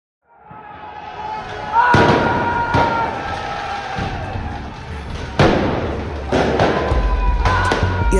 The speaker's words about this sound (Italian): ragazzi rivoltosi usano i fuochi d'artificio come armi. Sono piccoli mortai che sparano fuochi a decine di metri di altezza per creare cascate di luci colorate. Loro però li puntano in orizzontale contro le finestre dei bersagli che vogliono colpire